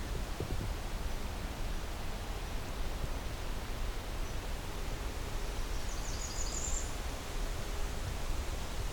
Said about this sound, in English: I think I have another Blackburnian warbler here at the front of the property.